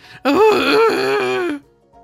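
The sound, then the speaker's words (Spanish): A loud, drawn-out wailing scream from a played video rises and wavers for over a second, strained and harmonic, then cuts off abruptly, leaving a faint trailing murmur. “ahí está los gritos que escuchaba Coito, que en realidad no son los gritos que escuchaba Coito”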